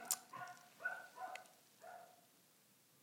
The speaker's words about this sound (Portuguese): É o cão. É o cão.